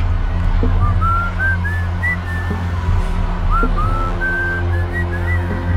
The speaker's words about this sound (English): As he whistled his happy tune